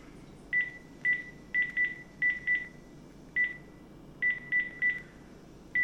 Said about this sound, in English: Okay, I'm dialing now.